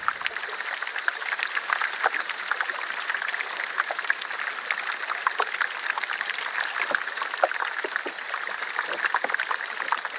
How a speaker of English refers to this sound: So then when we um, pop that piece of ice in water and it starts melting, and the gas just starts bubbling out of that and generates a little bit of fizz in the ice.